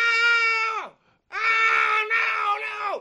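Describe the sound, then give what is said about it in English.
Two loud, anguished screams from one voice, piercing, each holding a strained high pitch before sliding downward; a brief gap separates the first shorter cry from the longer second wail. “that's Howard every night screaming when he goes home at the end of the show”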